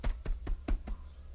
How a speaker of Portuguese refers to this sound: Minuto depois, Chapeuzinho bateu a porta.